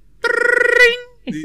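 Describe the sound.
An intercom phone rings once with a loud, buzzing electronic trill lasting under a second, then a voice starts speaking right after it stops.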